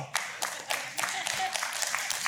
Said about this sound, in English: To all of you online, three people clapped.